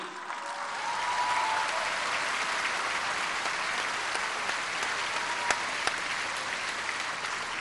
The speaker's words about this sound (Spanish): Y para terminar, pues un aplauso al ingeniero José Ignacio Sánchez Galán que está aquí.